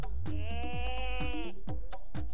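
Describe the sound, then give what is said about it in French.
A goat lets out one loud, quavering bleat lasting just over a second, clear, followed by a few short muffled knocks. “Ou alors la chèvre”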